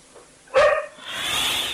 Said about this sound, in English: Yeah, I think we're going to have to uh, lose the barking dog, I'm told. Okay, I'll leave it. I'll just go and get the dog, go in the garden.